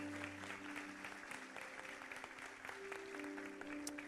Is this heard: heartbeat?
no